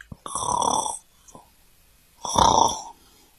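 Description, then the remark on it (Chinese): A lion snoring while fast asleep lying on a road: two long, loud, rasping snores separated by a short quiet breath, each with a rough, rumbling texture. “原来是狮子，它正躺在路上呼呼大睡。”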